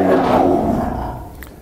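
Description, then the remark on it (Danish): Lions in the background at an animal park give a deep, rumbling roar that swells loudly at first, then slowly trails off over a second or so, with no talking over it. “Det I kunne høre der, det var altså løverne, der snakkede med her i baggrunden.”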